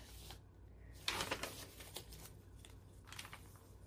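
Papery rustling and crisp flapping as pages of a thick handmade junk journal with collage pages are turned, a louder burst of crinkling in the middle and softer flips later.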